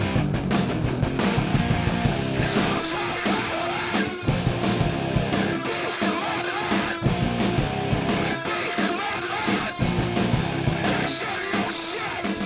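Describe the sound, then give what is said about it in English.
A loud, distorted rock guitar riff drives a dense, full-band song, with steady heavy chords and pounding low end filling the whole stretch without pause and no voices talking over it. “Dude, listen to that fucking riff, dude. That's amazing.”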